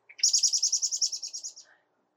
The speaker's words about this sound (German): Und da sitzt jemand auf dem Baum. Ein Vögelchen. Ja, das gehört auch zur Natur.